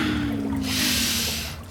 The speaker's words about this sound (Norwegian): Pust sammen med meg nå. Pust inn. En gang til. Helt inn.